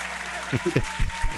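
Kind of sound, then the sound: crowd, applause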